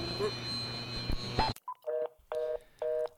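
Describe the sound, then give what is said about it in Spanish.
A noisy, crackling phone line cuts out abruptly, then a short blip is followed by three evenly spaced electronic beeps, the tone of a call that has been disconnected. “No, te estoy, te estoy perdiendo.”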